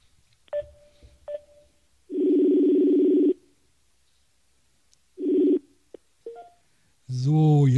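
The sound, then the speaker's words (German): Telephone dialing tones as a caller hangs up and calls again: a couple of short beeps, then a long steady dial tone and another shorter tone, ending with a burst of voice-like sound, fairly loud. “Jetzt muss ich wieder auflegen und ich rufe euch jetzt nochmal an.”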